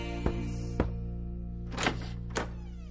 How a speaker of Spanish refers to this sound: Llama a una puerta.